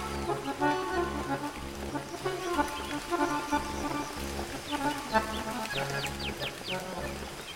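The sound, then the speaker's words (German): Steady rain pours down in a constant hiss, with a low pulsing musical drone underneath and a few brief bird chirps near the end. “Bei strömendem Regen löste der trostlose Anblick umgehend Depressionen aus”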